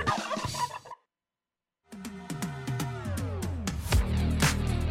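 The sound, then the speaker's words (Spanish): Several hen turkeys gobble in loud, rapid, warbling bursts, with a brief silent gap before a longer chorus of overlapping gobbles and clucks. “¿Escuchas? Las guajolotas ¡Guajoloteando!”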